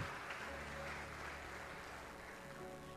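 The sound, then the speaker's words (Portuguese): An audience applauding: dense, steady clapping that holds at an even loudness for the whole stretch, with faint sustained low tones humming underneath. “Aplauda ao Senhor.”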